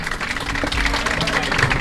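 A crowd applauds, with dense, steady clapping at an even loudness for the full two seconds and no clear break.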